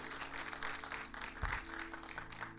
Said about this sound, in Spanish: Eh, pues no sé, pues ¿cómo le damos la bienvenida? Vamos a dar un fuerte aplauso, ¿no? A todos los que están por ahí en redes sociales. Bienvenidos también a la comunidad cristiana de Madrid.